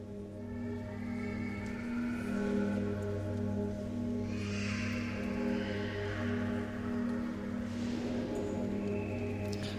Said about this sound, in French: Nous entendons la sonnerie du bourdon.